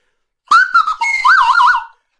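A loud slide whistle toots for about a second and a half, gliding up and down in pitch, then ending in a quick wobbling warble. No voices accompany it.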